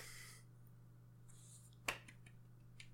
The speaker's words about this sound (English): Pity clap's good.